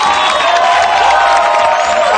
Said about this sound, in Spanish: Aplaudan a nuestros compañeros.